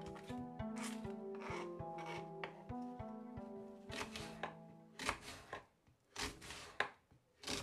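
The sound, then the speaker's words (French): A knife chops food on a board in quick, repeated strokes with a scraping edge, first over a steady humming tone, then alone as louder, irregular cuts. “et puis aussi le son euh, des aliments qui sont en train d'être euh, cuisinés, euh, en train d'être coupés, en train d'être mijotés.”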